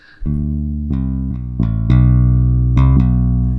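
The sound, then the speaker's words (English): A plain synthesizer tone, the initial preset with nothing loaded, played on a linked keyboard, several sustained notes and chords entering one after another with bright harmonic layers, loud, no voices. “So this is just your initial preset, nothing loaded here, nothing exciting. And it just sounds really good straight off the bat.”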